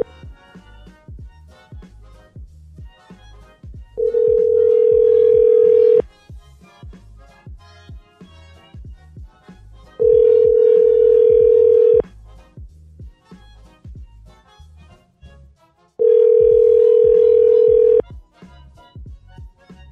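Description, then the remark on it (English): Telephone line tones as a number is called again: three loud, steady two-second tones separated by even four-second pauses, with a rhythmic music bed playing quietly underneath throughout. “Okay, so should I call that one again?”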